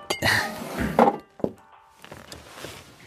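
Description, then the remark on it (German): Drinking glasses clink and knock against a table several times in quick succession as drinks, a mead and a firewhisky, are served. Fairly loud, with a brief sharp ring near the middle and softer rattling afterward. “So, Hagrid, hier einmal dein Met und ein Feuerwhisky.”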